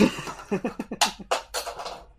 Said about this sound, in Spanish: ya se cayó el Grandizer. ¡Ay! No sé qué suena por ahí, también se cayó otra cosa.